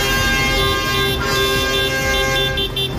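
The horns of several tractors at a farmers' tractor protest in Palencia province, Spain, blare together in a loud, sustained chorus over a low engine rumble, holding steady for the whole stretch with no pauses and no one speaking.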